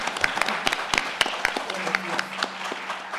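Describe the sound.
Applause from a small group: dense, irregular sharp claps of steady moderate loudness continuing for a few seconds, with some faint voices mixed in.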